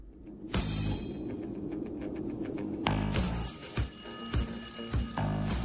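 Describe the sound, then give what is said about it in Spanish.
Alarm clocks burst into loud, continuous metallic ringing after a brief quiet start, a dense clanging bell that keeps going with a few louder pulses toward the end. No one speaks. “Un despertador. Exactamente”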